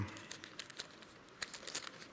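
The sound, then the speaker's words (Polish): Stuck-together pages of a Bible being pried apart: a quiet run of crisp little crackles and crinkly ticks, irregular and brief, with no voices. “Boże, mam sklejoną kartkę tu.”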